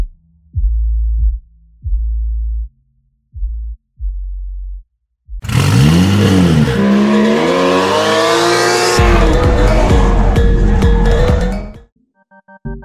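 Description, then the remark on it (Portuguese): A few short engine blips, then a drifting car in Japan roars loudly for several seconds with rising, wailing tire squeal and shifting engine pitch, before cutting off near the end. “A cena de drift aqui no Japão era é bem forte, né?”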